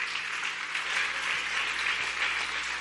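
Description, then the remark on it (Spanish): A church audience bursts into steady applause as praise to the Lord, many hands clapping in a dense, continuous wash of sound that holds at an even level for the full few seconds with no voices over it. “Dele un buen aplauso de alabanza al Señor.”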